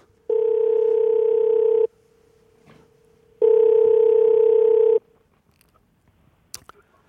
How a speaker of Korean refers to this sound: 3760님 전화 한번 걸어봅니다.